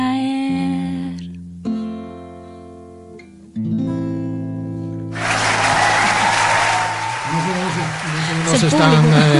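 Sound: audience applauding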